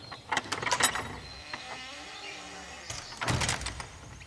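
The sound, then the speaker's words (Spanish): A door is pulled shut: an opening rattle of hinges and latch, a quieter creaking sweep, then a second burst of clattering mechanism as it closes, with no talking. “Dejad solos a los que quieren procrear y cerrar la puerta”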